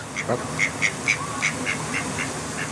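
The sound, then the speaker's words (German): Ducks setting off on the move in a garden in Northumberland at ten in the morning quack in a steady run of short, nasal calls, roughly eight or nine in quick succession, over a low background rumble. “Die Enten von Annie Garden setzen sich in Bewegung.”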